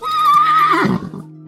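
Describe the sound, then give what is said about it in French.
A horse whinnies loudly, a high quavering call that wavers for most of a second before dropping into a lower, breathy snort-like tail. “Pour faire le voyage, Grand Gousier donne à son fils une jument que lui a offert le roi de Numidie, envoyé d'Afrique par bateau.”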